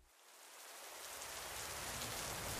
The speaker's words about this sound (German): Jetzt bin ich gerade in Tübingen angekommen. Ähm, es regnet in Strömen. Ich bin schon komplett durchnässt. Ich stehe hier an diesem Mäuerchen am Neckar